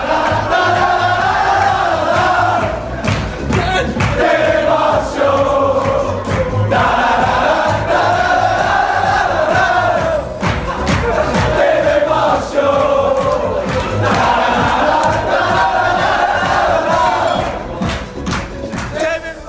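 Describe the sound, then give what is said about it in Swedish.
A large crowd of football fans sings a rhythmic terrace chant in unison, loud and sustained, with the melody repeating over and over and a dense roar of voices filling the space. “Den riktiga Will Griggs-ramsan som inte blev för kommersiell.”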